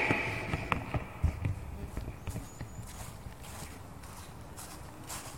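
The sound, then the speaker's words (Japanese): Footsteps of a person walking in a park crunch through fallen leaves, a series of crisp, irregular steps, loudest at the start and softening as they continue over a faint outdoor background, with no one talking. “これが落ち葉を踏んでる音です”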